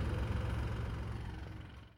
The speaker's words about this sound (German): Ja, außerdem fuhr gerade ein Wagen vor von Canyon SRAM.